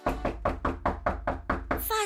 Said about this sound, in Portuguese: Bateram à porta.